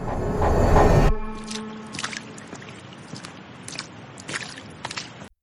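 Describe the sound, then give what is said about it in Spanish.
Wet footsteps of a man walking around a basketball court in a prison courtyard splash through shallow puddles left by rain on a summer afternoon, at an unhurried, uneven pace, each step a short squelchy slap, following a brief loud rush of sound at the very start. “No le importa mojarse los zapatos cuando camina entre los charcos de agua que dejó la lluvia de aquella tarde de verano.”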